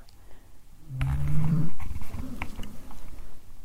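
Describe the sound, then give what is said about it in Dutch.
A dog lying on a couch snores close by at night, a low rumbling breath that swells into a throaty drone, then trails off into softer, uneven snuffling. No one speaks. “mijn hond, alleen onze hond, ligt goed te snurken naast mij in zetel.”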